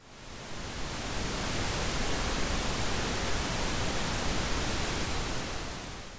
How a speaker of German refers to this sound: Das Rauschen der Eiche ist vor allem durch seinen ausgeprägten Hochtonbereich zu erkennen. Es entspricht physikalisch eher einem Rosa-Rauschen, bei dem die Amplitude in den hohen Frequenzen nicht so stark abnimmt wie beim roten Rauschen.